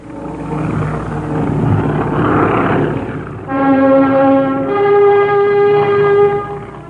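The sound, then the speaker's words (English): Airplane engines drone steadily, starting as a broad rumbling roar, then shifting into a loud, sustained humming tone with a strong pitch. No one speaks. “He sits behind engines the reliability of which is all but unbelievable.”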